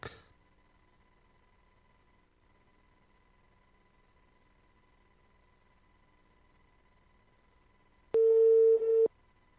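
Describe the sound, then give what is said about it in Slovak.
A telephone line tone as a phone call is dialed: near silence for several seconds after a faint click, then one loud, steady electronic ring burst lasting under a second near the end. No voices. “Ja teraz vás na e, Skype položím a skúsim vás vytočniť na telefóne.”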